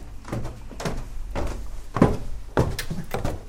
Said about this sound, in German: Über knarzende alte Stufen geht es unter das Dach eines Seitengebäudes.